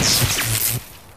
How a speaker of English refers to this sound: This is the sound of a flat screen television hurled off a building.